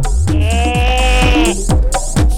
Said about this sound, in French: Ou alors la chèvre